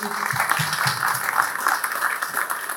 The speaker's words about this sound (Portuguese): Eu queria que a gente pudesse aplaudir mais uma vez eles, pessoal,